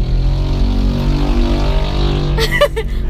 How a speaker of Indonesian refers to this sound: maaf ya, suara motor lewat maaf, maaf